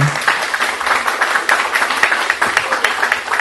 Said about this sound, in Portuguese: Eu queria muito a salva de palmas para os nossos convidados, foi muito bacana.